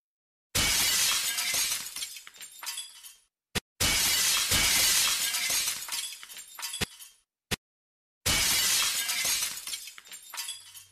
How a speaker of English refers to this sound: Virat pulled a steel pipe from the median and smashed in the glass of the lady's imported car.